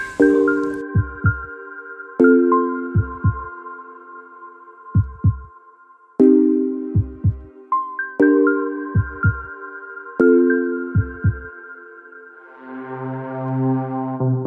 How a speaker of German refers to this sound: Und zwischendurch hört ihr nochmal das wunderschöne Lied von uns beiden,